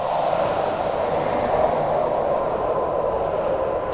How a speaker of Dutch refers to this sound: dan doen ze dat op allerlei eh, sounddesign, geluiden, wind. hier zelfs regen.